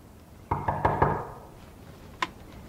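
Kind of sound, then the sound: household object, knocking on a door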